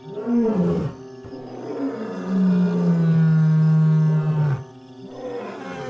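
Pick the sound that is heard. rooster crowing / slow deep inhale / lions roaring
lions roaring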